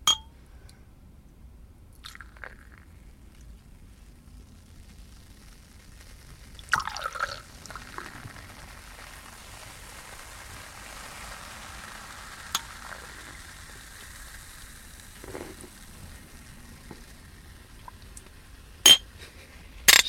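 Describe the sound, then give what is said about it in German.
Champagne is poured with a splashy gush, followed by a steady bubbly fizz for several seconds, then a few sharp clinks of glasses in a toast near the end. No one speaks. “Stößchen finde ich eh sehr schön. Ein Schluck Champagner.”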